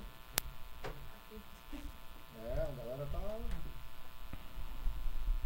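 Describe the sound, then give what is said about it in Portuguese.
A steady electronic buzz with faint ticking clicks runs under a man's brief speech, a thin interference hum on the microphone line caused by a mobile phone on the table during a live stream. “o celular tá... perto atrapalha? Não, não. não. Tipo, na mesa tá dando chiado.”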